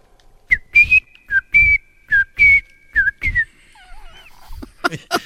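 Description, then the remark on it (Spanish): A person whistles a series of short, chirpy bird-like notes, about eight quick bursts in an uneven rhythm, fairly loud, followed by a few softer warbling trills. “Me he convertido en pajarito para llegar a Venezuela.”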